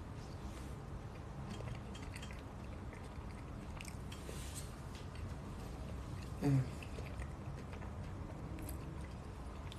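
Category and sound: food or drink, biting and chewing food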